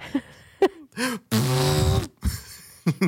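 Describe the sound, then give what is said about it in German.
A voice imitates a New Year's party horn with one loud, buzzing honk lasting under a second, surrounded by short breathy bursts and vocal noises. “Ich wollte eine Tröte mit meinem Mund nachmachen und habe dann dabei gemerkt, das kann ich so wirklich gar nicht.”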